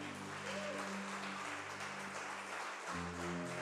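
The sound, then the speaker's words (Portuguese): A crowd claps loudly and steadily for God, a dense wash of applause filling the whole clip, with sustained low organ or keyboard chords playing underneath that shift partway through. “Vamos aplaudir o nosso Deus bem alto, gente?”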